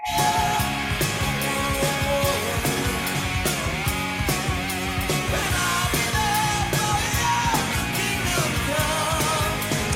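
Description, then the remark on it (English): A loud rock B-side song that was never mainstream plays steadily over speakers throughout, with a full band of driving drums, distorted guitars and a strained, shouted-sounding lead vocal. No one talks over it. “Um, this was a B-side uh, song. It was never mainstream, but like I said, it, it was pertinent.”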